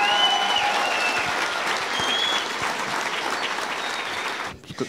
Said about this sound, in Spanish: Entonces yo quiero pedir el aplauso porque esta mierda está llena otra vez